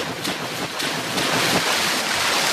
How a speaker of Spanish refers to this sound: Uy, uy, ¿qué pasa? Se salió el mar.